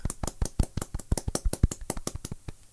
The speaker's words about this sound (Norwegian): Ja, men, men, før vi tar nyheten, skal vi ta en liten applaus til oss. OK. okay. Liten sånn golfklapp.